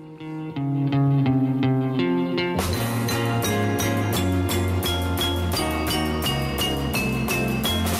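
A song's instrumental intro, played on the Monday morning Mozaik radio broadcast of January 10, opens with soft, sustained keyboard-like chords, then a full band with drums and bright cymbals kicks in about two seconds later, playing a steady, loud groove with no singing.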